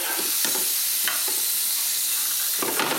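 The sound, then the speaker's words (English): Bacon sizzles steadily in a frying pan as it is turned, pulled apart and has its rind taken off, a constant bright hiss broken by a few sharper crackles and pops, with no one speaking. “I'm going to pull the bacon apart and take the rind off.”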